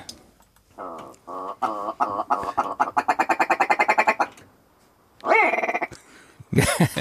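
A willow ptarmigan calls alone: nasal, clucking notes speed up into a rapid rattling stutter, then after a short pause come a few loud, harsh, downward-sliding croaks.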